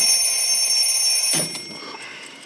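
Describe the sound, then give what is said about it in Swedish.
Several alarm clocks from a hobby collection kept on a man's table ring together in a dense, shrill metallic clatter, then cut off abruptly with a soft knock, leaving quieter ticking and faint rattling behind. “Något hör, knappt vad de säger, hör knappt vad de säger, typ det jävla tickandet av alla jävla klockor alltså.”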